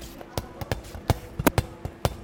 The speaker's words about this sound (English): That's the sound of children playing dodgeball backstage right before the curtain came up.